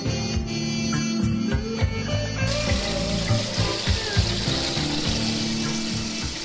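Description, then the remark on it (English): Water runs steadily from a tap into a filling bathtub, a continuous rushing splash with a low resonant rumble beneath it, unchanging throughout with no voices. “And there is nothing better at the end of a long day than a hot bath and a good book.”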